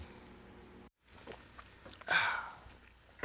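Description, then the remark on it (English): A loud, wet slurp of someone sipping a drink, following a brief pause and some soft handling noises, with no talking. “Can you hear me like drinking really loud? Is that super loud? It was fairly loud, yeah.”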